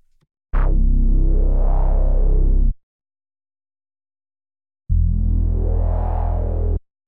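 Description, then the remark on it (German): Two sustained synthesizer bass notes, each about two seconds long with a pause between, loud and buzzy with a bright, unfiltered harmonic-rich tone and a sharp attack on the first; an IDN bass from Omnisphere played without the Filter Mini filter. “Wir fangen an mit einem IDN-Bass aus Omnisphere. Und hier ist auch wieder mein Filter Mini drauf. So klingt es ohne Filter.”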